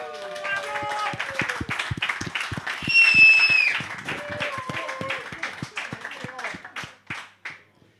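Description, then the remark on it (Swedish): Audience applause at a quiz event for the winner of a 2017 music competition, in a brisk, steady rhythm of claps, with tonal whoops and whistle-like cries riding over it, swelling briefly in the middle and then thinning out and fading at the end. “Stor applåd!”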